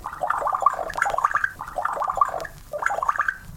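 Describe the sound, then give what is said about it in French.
A voice imitates a drink being poured, making rapid bubbly gurgling glugs in a steady run, then a short pause before another burst of gurgles. “Verse à boire.”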